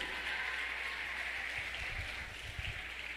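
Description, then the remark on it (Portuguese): A crowd applauds the name of Jesus in a steady, dense wash of clapping that holds at an even level for the whole few seconds, with faint low rumbles underneath. “Aplauda o nome de Jesus.”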